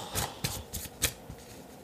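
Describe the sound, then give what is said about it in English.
Tarot cards being shuffled, a quick series of soft papery riffles and slaps in irregular bursts, with no one speaking. “i don't know if you guys pull tarot but i love a little tarot”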